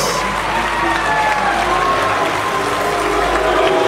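A loud, sustained ovation in El Salvador's Legislative Assembly for President Bukele's speech: dense, steady clapping from many people, with a murmur of crowd voices and scattered cheers mixed in throughout.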